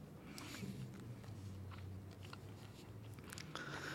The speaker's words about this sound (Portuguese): tá mastigando.